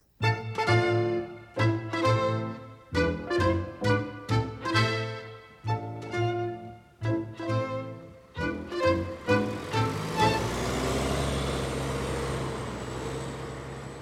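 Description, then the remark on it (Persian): A rapid series of loud, tonal horn-like blasts in an uneven rhythm, giving way to a steady engine rumble and hiss as a bus idles or pulls away. “اتوبوس”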